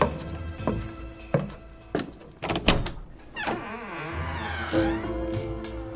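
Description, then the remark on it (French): A few sharp knocks or thuds, then a long, wavering creak as a door swings open for a visitor. It is moderately loud, with no voices. “Vrai la porte J'y vais, j'y vais”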